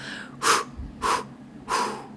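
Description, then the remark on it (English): Three short, soft puffs of breath, evenly spaced about half a second apart, breathy, like gently blowing out little candles, with no talking; a person breathing a greeting to a horse. “And even just these simple, simple changes, breathing a greeting to them, which is three short breaths.”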